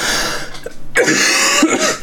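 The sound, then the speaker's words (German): Two harsh, forceful coughs, the first rough and raspy, the second a sharp bark after a brief gap, with no talking. “Fest husten.”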